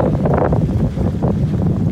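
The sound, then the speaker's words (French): A strong headwind buffets the microphone of a cyclist riding along a road, a continuous, loud, low rumble with gusty surges, roaring steadily throughout with no voices. “Vent plein de face.”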